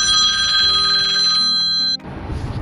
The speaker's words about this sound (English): my apologies. I told you someone would ring the phone while I was doing the mobile edition of the Truth Hurts program, and it might happen again. You never know.